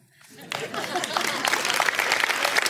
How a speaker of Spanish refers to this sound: Eh, en primer lugar, gracias sinceras por este espontáneo aplauso.